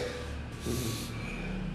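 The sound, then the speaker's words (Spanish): A long, airy inhale drawn through the nose, steady, swelling slightly partway through before easing off, as part of a meditation breathing practice. No one speaks. “Que te dicen respira, respira otra vez.”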